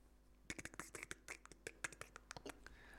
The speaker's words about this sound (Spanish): Muy raro, porque se escucha el teclado y no se escucha él, o sea que parece una cargada en realidad.